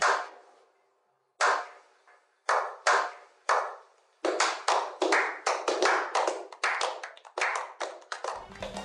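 An applause sound effect: a few sharp, separate hand claps with pauses between them, then a steady run of brisk, loud clapping that settles into continuous applause. No voices are heard.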